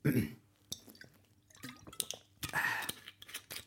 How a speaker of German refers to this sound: Ich nehme mal noch einen Schluck. Ihr seid wieder live dabei. Bei einem guten, jetzt sage ich euch noch hier Product, Placement, das gute Gerolsteiner Naturell.